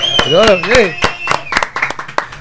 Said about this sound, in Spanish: Un aplauso, un aplauso.